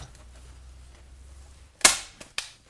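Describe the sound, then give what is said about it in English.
A stapler fires three times as it tries to staple paper into wood: one loud, sharp snap, then two quicker, lighter clacks, all over a steady low hum with no talking. “Can we get a stapler two on? Nah, it didn't go into the wood at all.”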